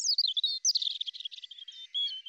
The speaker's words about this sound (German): Wissenschaftler haben den Gesang von Rotkehlchen näher untersucht und dabei einige spannende Entdeckungen gemacht.